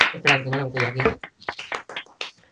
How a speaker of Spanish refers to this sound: El concepto parecía que estaba trabajado para ser televisión española, eso merece otro aplauso. Pero. ¿Aplauso? un oh, oh, aplauso.